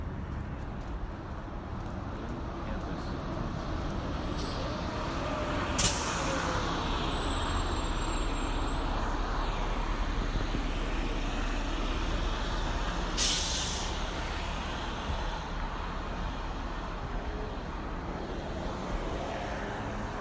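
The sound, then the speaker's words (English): A commuter bus heading to Apple in the Bay Area rumbles loudly, its brakes squealing briefly, with two sharp bursts of air-brake hiss several seconds apart over the steady engine and traffic noise. “The only difference is this time he is walking to Google, and what he doesn't know is that he is about to get onto a bus heading to Apple, not Google.”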